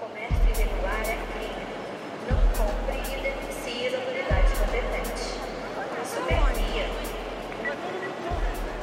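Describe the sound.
Busy train station ambience at Central do Brasil station in Brazil: a steady wash of crowd chatter and echoing bustle, with deep rhythmic thumps recurring about every two seconds beneath the indistinct voices.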